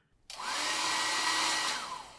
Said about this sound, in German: Meine Küchengeräte zum Einsatz kommen ein Kochlöffel, ein Rasenmäher, ein alter Föhn